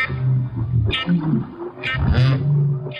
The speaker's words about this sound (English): They were humpback whales the hmm. best thing about that story is nobody knew they sang until the 1960s.